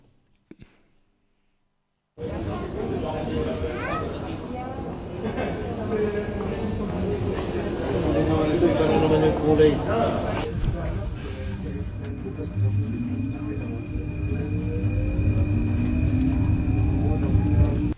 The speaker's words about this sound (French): C'est à Paris Absolument, même pas besoin d'annonce, elle a trouvé que c'était Paris. c'est- le, le son du métro électrique.